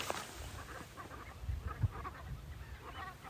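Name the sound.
flock of geese honking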